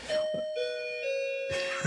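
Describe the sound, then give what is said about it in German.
An electronic doorbell at someone's door chimes a short melody of a few sustained, ringing tones that shift in pitch, fairly loud, with brief bits of voice at the start and end. “warum klingelt es an deiner Tür?”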